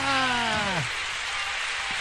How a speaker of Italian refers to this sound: Sono gli applausi che si meritano i ragazzi. Questa sera puntata. Sì! E eh, sentiamoci questi applausi.